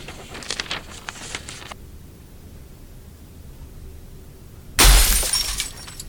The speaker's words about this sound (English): stands in the middle of the broken glass.